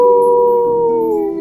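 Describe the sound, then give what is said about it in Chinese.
A wolf pack howling in one long, loud, sustained note that holds steady, then sags slightly in pitch toward the end. No voices accompany it. “这是狼群的叫声。”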